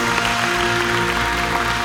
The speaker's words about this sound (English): Hey, come on, church, let's go ahead and give God a big round of applause.